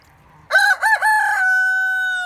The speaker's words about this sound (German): der Hahn. Stimmt. Überraschend.